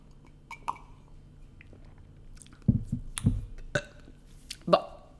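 Two loud burps sound a moment apart, deep and gurgly, with small mouth clicks and faint breathy noises scattered around them.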